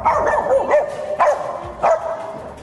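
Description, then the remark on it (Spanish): Mili, a small female dog nicknamed 'la españolita', who traveled 22 days inside a shipping container from Spain to Panama, barks three times in quick, evenly spaced high-pitched yaps, clear, with a steady low background hum and no one talking. “Así de feliz encontramos a Mili la españolita como cariñosamente le pusieron a esta perrita, Milly viajó por 22 días dentro del contenedor y el resto quedó varada en el puerto panameño.”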